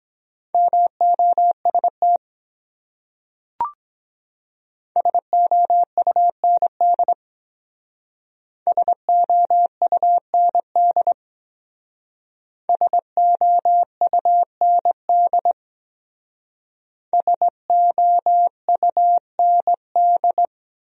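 Morse code beeps sent at 17 words per minute: a steady mid-pitched tone keyed on and off in quick dots and dashes, sent in five separate bursts with short pauses between them, plus one brief click early on.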